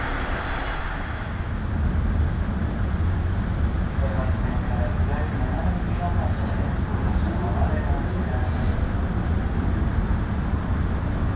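Inside a Shinano Railway local train bound for Nagano, departing Komoro, a steady, heavy low rumble of motion fills the space at an even level throughout, with a faint hiss above it and no distinct voices.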